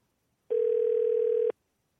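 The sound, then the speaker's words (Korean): A single steady telephone ringback tone sounds for about one second as Park Myung-soo's Radio Show places a call to a listener, a clean sustained electronic hum that starts and stops abruptly, with silence before and after. “스킨십 얘기 듣고 전화를 한번 어, 걸어보겠습니다.”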